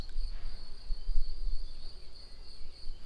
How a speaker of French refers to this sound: Vous entendez là certainement comme à l'habitude les sons du jardin, la nature.